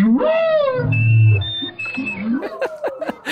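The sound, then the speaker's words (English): Humpback whale song with rising, moaning sweeps picked up by an underwater microphone, paired with steady held clarinet notes played live through an underwater speaker as a clarinet-and-whale duet. Loud, with several calls over a few seconds and no talking. “And you hear this duet from down there, live clarinet and whale.”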